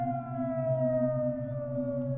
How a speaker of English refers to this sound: As we're eating, we hear the sirens go off because this entire peninsula was ordered to evacuate